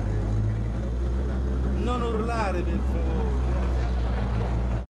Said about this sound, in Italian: Siamo in molti a lavorare qui. Senti questa macchina, non ti preoccupare il rumore che senti.